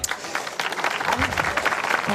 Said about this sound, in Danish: Se, og det, det var simpelthen mig en applaus, som jeg ikke opfordrede til. Så altså, det er et selvtænkende publikum, vi har her på Folkemødet, naturligvis.